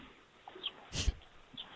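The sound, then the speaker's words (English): A dog whimpers faintly over a phone line, giving a few short, thin squeaks around one brief louder, breathy burst, then trailing off into quiet. “Uh, oh, I got a uh, dog on the phone.”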